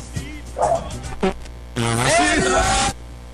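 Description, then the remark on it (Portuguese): An angry dog barks in a few short bursts, then lets out a longer, louder bark-like howl, with a low electrical hum underneath. “O cachorro ficou bravo.”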